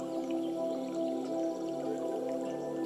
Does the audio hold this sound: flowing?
yes